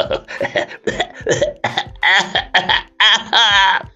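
A loud coughing fit from swallowing a fly: about ten harsh, strained coughs in rapid succession, some raspy and voiced, barely pausing between bursts for four seconds.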